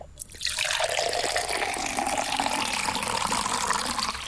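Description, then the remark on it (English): Water pours steadily into a glass, a continuous splashing stream that starts abruptly and runs fairly loud for several seconds, with the pitch of the filling rising slightly as it goes. “basically just shout stop before the water falls out of the glass.”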